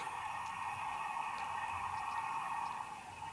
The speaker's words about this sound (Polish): Jeżeli teraz zasłonię mikrofon... Gdzie on tu jest? O. Szumy nam wróciły.